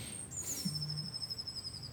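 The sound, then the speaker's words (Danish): Birds calling: a short, low hooting note sits under a thin, steady high-pitched whistle that runs through the whole moment, with no talking. “Fuglene øh, giver dig svaret.”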